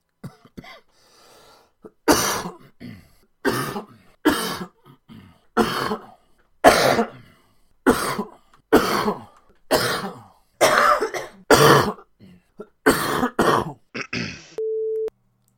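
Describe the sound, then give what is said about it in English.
A loud run of about a dozen coughs and throat clears in quick succession, each a harsh burst with brief gaps between, ending with a short steady electronic beep. “I'm actually going to mute my mic, but I'm going to edit my audio before I send it to Ross, so I get rid of all the coughs.”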